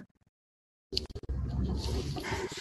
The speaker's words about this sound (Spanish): ay, disculpa que aquí estoy con mis perros, pero, pero puedo estar equivocada.